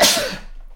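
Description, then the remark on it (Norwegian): A single sharp sneeze bursts out, a loud explosive rush of breathy noise that trails off quickly, followed by a faint short sniff or breath. “Prosit.”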